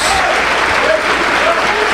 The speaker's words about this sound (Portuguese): Isso, enquanto você aplaude, abra a tua boca e diga glória a Deus. Aplaude e vai dando glória.